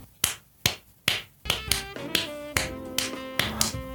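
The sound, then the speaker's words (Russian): Sharp, loud taps beat out a steady pulse, tapped to mimic the heart rate of a Zack Snyder fan: four evenly spaced knocks at first, then the rhythm speeds up and carries on over ringing, pitched musical tones. No one speaks. “Сейчас попробую настучать.”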